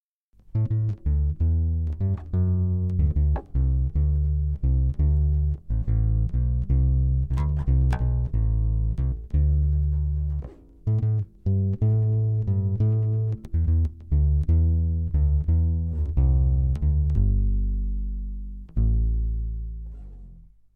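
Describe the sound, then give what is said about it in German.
A bass ukulele played through an amplifier, with a steady run of deep, round plucked notes in a walking line, a brief gap midway, ending on a sustained low note that fades out. “Aber wir hören einfach mal rein, wie so ein Ukulele-Bass klingt.”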